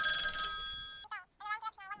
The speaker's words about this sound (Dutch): Oh, telefoon.